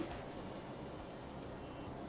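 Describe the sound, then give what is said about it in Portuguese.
A cricket chirps in a steady rhythm, four evenly spaced high-pitched trills over a constant low background rumble, with no one talking. “Tem um grilo cantando aí.”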